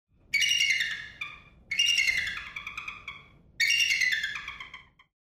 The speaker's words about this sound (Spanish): El National Eagle Center está en Wabasha, Minnesota, en donde educan a la gente sobre estas maravillas aladas. Y si te sorprende que ese era el sonido de una águila calva, no estás solo.